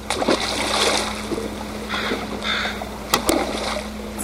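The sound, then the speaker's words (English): Calm waterside ambience in a quiet inlet off the coast of Vancouver Island, with forested islands on dark water and salmon net pens by the shoreline: a low steady hum, gentle lapping and splashing, occasional bird calls like crows cawing, plus a couple of sharp knocks near the end. “forested islands float on dark water here in a quiet inlet off the coast of Vancouver Island.”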